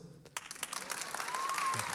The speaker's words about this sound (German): So, Applaus ja.